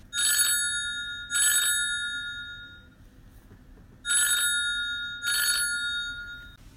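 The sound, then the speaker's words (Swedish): A telephone rings in two double bursts, a bright, metallic trill repeating with a pause between pairs, clear with no one speaking. “Nu ringde det här eller?”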